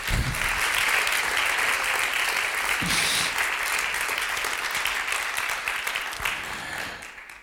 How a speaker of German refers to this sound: eine Hammerband. Ich weiß nicht, ob diese Band schon mal einen Applaus bekommt. Bestimmt schon sehr oft, oder?